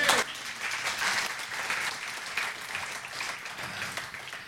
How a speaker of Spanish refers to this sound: ¿Cuánto? Da un aplauso al Señor.